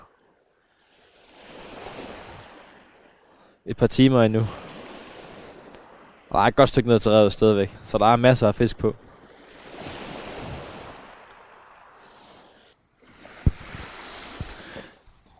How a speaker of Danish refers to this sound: Det du kan høre her i baggrunden, det er Kattegat, der skvulper med små fine bølger op af Helgenes kyst, Djurslands kyst. Jeg er nede på det allersydligste af Djursland